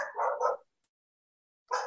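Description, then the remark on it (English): A dog barks twice in quick succession, falls silent for a moment, then lets out another bark. The barks are fairly loud, with no talking. “I'm sorry about my dog.”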